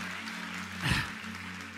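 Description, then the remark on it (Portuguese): An audience applauding the Lord for the word just read, a dense steady wash of many hands clapping, with a low hum underneath and a brief louder swell midway. “Você pode aplaudir o Senhor por essa palavra.”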